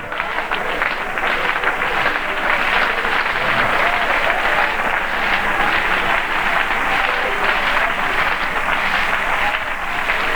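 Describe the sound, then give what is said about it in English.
An audience claps hands to God steadily throughout, a dense, continuous wash of applause at an even, fairly loud level with no pauses and no spoken words. “Oh, clap your hands to him.”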